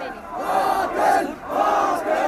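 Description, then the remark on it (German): A large crowd of thousands of demonstrators marching through a city chants slogans against Hosni Mubarak and for freedom and human rights in unison, voices swelling and falling in a steady rhythmic pattern, loud and continuous with many overlapping voices. “Yes, yes, yes, Nieder mit Hosni Mubarak rufen sie.”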